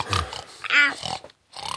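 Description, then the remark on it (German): A pig grunts and snorts in a quick series of fairly loud bursts, one rising into a short squealing tone, then a brief pause before more grunting. “Das Schwein kann Schach spielen?”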